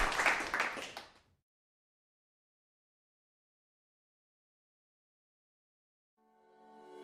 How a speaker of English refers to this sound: Let's give the Lord a hand clap, please.